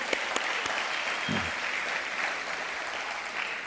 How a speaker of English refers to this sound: We want to welcome our bikers. Let's give our bikers a big hand. Thank you for being here.